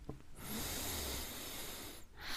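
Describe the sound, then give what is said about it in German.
A single long, deep breath drawn in during a breathing exercise, a steady airy hiss lasting about a second and a half before stopping, with another breath starting right after. “schließen dazu unsere Augen und atmen einmal tief ein.”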